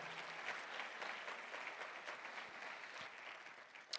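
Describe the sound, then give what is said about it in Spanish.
Sustained applause from an audience clapping for the Lord, a dense steady wash of clapping with no pauses and no voices over it, holding at an even, fairly loud level throughout. “Dale bien fuerte el aplauso al Señor si crees que Él está en este lugar.”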